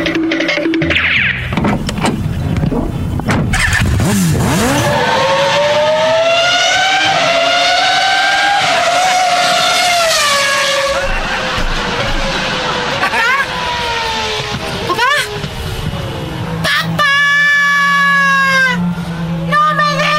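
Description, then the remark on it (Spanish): A car engine revs up under a hot, strong sun, with rising and falling pitch for several seconds, loud, then a brief higher whining rev follows as the vehicle seems to pull away. “voy a ver qué tiene el, carro, eh, porque aquí con este solazo que está haciendo no te quiero dejar adentro del carro, ¿ok?”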